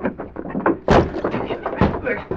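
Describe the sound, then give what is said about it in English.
An old wooden door on the land side of a boathouse is forced open by two people hitting it together: two heavy, booming blows about a second apart, each followed by rattling and creaking, loud, with some muffled voices around the impacts. “We'll have to force that old door. We'll hit it together.”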